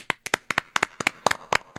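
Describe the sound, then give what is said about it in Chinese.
A short burst of applause: around a dozen crisp, sharp hand claps in a quick, slightly uneven rhythm, some landing in close pairs, with no voices. “不不不，今天给大家送出我们非常用心准备的、非常充满我们祝福的鼓掌，三二一。”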